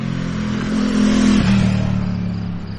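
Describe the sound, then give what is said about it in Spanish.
Motorcycle engines rev loudly and steadily at about 22:09 at night, the pitch climbing and then dropping slightly as they pass, with a constant throaty rumble and no voices. “Las motos.”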